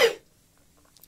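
A single sharp sneeze bursts out, loud and abrupt, then fades into near silence before a faint rustle of breath at the end.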